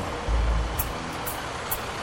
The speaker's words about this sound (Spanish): Eh, caramba, no me esperaba esto en absoluto. Es un gran carro de bomberos.